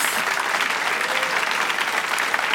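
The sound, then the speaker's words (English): Sustained applause from a large audience thanking comedians Lloyd Langford, Terry Alderton and Stephen K. Amos, a dense, steady wash of clapping hands at even volume throughout, with no voices standing out. “let us have a huge thank you to everybody who's seen Lloyd Langford, the Ginge, the Geordie, and the Geek.”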